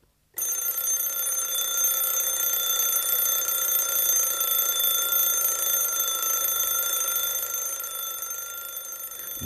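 An alarm clock rings loudly and continuously, a shrill metallic clatter that starts abruptly and keeps going without a break for about nine seconds.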